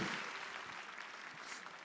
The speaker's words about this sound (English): Mothers, you are warriors. Yeah, yeah, yeah. applaud, applaud mothers, right?